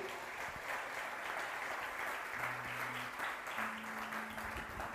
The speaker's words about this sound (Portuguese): Se você acredita nisso, aplauda bem forte a ele aí.